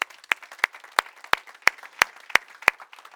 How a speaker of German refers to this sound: Und äh, wir wollen euch, wir wollen den Menschen einen herzlichen Applaus geben und sie herzlich begrüßen.